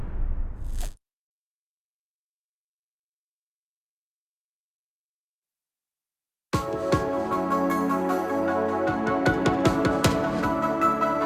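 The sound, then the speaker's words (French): After a brief burst of noise and several seconds of silence, closing music played after a prayer suddenly kicks in loud, with sustained tones and steady percussive hits playing to the end. “Sir tu peux passer la musique, s'il te plaît.”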